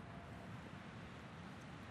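Wind blows steadily through Riksantikvaren's metal scaffolding pipes running up over the tower of monastery church ruins, a continuous low, rushing drone with a faint hollow howl that almost sounds like chimes, fairly quiet, with no voices.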